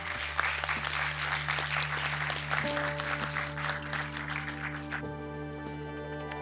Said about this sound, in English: Uh, and why don't we give a warm applause to our panelists?